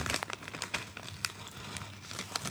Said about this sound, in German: Also die Kinder müffeln übrigens nebenbei die angebrochene äh, Tüte Kettle Chips Lightly Sorted.